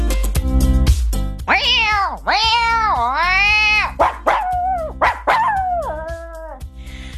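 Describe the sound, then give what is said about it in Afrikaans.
Two people mimic cats and dogs, trading long, wavering meows and shorter yelping calls in quick succession, loud, over a steady thumping beat. “So ek en … het nou klaar soos kat en hond beklei en uh, ons het nou die diere in ons hier weggejaag.”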